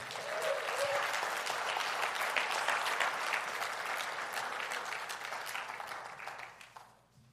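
An audience at a morning church service applauds the Lord steadily in a dense, sustained wash of clapping that stays full for several seconds before gradually thinning and fading out near the end.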